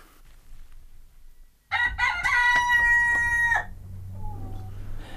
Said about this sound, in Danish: Kan du høre hanen?